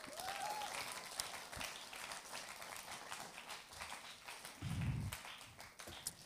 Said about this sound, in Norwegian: Kan vi gi deg en god applaus?